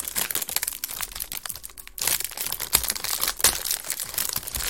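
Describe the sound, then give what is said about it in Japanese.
A Tim Tam Salted Double Chocolate biscuit packet, a limited version holding nine biscuits, being opened, its plastic wrapper crinkling and crackling in a steady run of sharp, dense rustles with a brief pause near the middle. “じゃあ開けます。”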